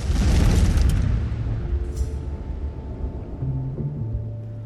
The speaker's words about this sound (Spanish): Operó con normalidad durante nueve años hasta que el 20 de abril de 2010 la plataforma que perforaba el pozo petrolero Macondo explotó.